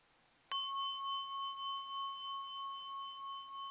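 A small Buddhist singing bowl (orin) is struck once, giving a bright, high metallic ring pitched at D flat that sustains with a gentle wavering shimmer, clear with no talking.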